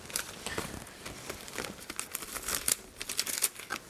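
Irregular crinkling of a doctor's coat and plastic gloves being handled during an ASMR head-to-toe exam, a steady run of sharp crackly rustles with brief louder bursts, with no talking.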